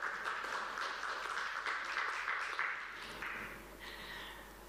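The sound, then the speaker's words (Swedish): A crowd applauds with steady, dense clapping that carries on for several seconds, then thins and softens toward the end. No one speaks over it. “Du kan få Ge henne en applåd, det är hon värd.”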